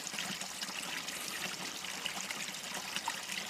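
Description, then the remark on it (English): Shallow creek water, just a few inches deep, trickles steadily over stones on a late summer or early fall afternoon, a soft, continuous babbling with small flickering splashes, heard alone and fairly quiet. “As we cross the creek, it's just a few inches deep.”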